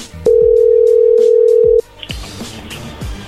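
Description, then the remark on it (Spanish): A telephone being dialed again: a loud, steady single-pitched dial tone holds for about a second and a half, then cuts off, followed by soft clicks and faint line noise. “Bueno, ahí se está marcando de nuevo, no hagas ruido.”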